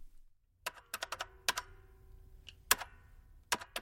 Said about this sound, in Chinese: 尽管他大声否认，那男职员仍不为所动，熟练地按着计算器计算着那些衣服的价格。